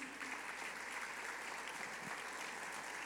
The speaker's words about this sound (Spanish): denle un aplauso a Jesús.